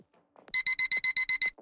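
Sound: alarm clock ringing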